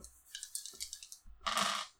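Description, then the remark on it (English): Dice rattle and clatter across a hard tabletop in a quick series of bright clicks, ending in a louder tumbling burst before settling. No one speaks. “The woman fails, and then it is going to be dice that I'm rolling.”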